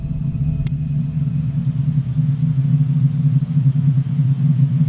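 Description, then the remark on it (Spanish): A deep, steady rumbling drone, the Sun's acoustic waves made audible and enhanced by sound engineering, fills the whole stretch, low and dense with a slight pulsing texture, heard alone without any voices. “Lo que estamos oyendo son los latidos del Sol, potenciados por la ingeniería de sonido.”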